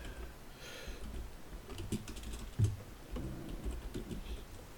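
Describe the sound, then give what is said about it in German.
Quiet, irregular clicking of keys on a computer keyboard, with short bursts of rapid taps and a slightly louder knock partway through, with no voices. “Da, ich kann nicht tippen.”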